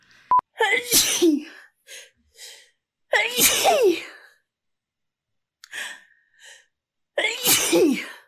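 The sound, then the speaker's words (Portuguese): Three loud sneezes spaced a few seconds apart, each a sharp inhaled buildup followed by a forceful burst, with brief quiet breaths and small vocal sounds between them. “Eu sempre espirro três vezes.”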